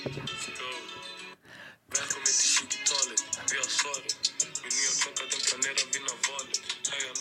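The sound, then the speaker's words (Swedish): The intro of a hip-hop song plays loudly with a punchy, steady beat and crisp repeating percussive hits, briefly dropping out to near silence before the rhythm kicks back in. “jag ska bara spela introt på 20-talet. Jag tycker den är så himla bra alltså. Ni hör ju, väldigt bra beat.”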